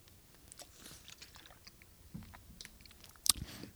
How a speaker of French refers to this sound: Je vais juste prendre une petite gorgée d'eau, deux petites secondes, hein, si vous me permettez.